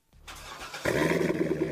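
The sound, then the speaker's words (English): A Corvette sports car engine cranks for under a second, then catches and roars to life with a loud, steady rumble; no one speaks. “That's the sound of America's only sports car.”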